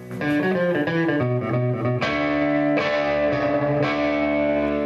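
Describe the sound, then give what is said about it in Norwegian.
A loud, heavily distorted electric guitar plays a riff of sustained, ringing chords through an amplifier, shifting to new chords every second or so, with no voices; one of 280 recorded variants of the riff made with different amplifiers and microphones to document the sound of iconic guitars at the Rockheim museum. “Resultatet etter å ha dokumentert lyden til de to ikoniske gitarene, ble 280 ulike varianter av gitarriffet”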